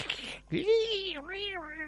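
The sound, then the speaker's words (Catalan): Someone vocally imitates a movie dinosaur roar: a breathy rasp, then a drawn-out, wavering cry that dips and swells over a second and a half, fairly loud. “I una cosa que a mi m'ho molt de la pel·lícula, que això no és científic, o, bueno, podríem, caldria mirar si és un error o no, és el so dels dinosaures.”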